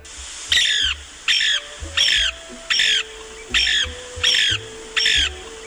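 A Lewis's woodpecker gives seven harsh, rasping churring calls in a steady rhythm, each a short burst with brief pauses between, loud with no one speaking.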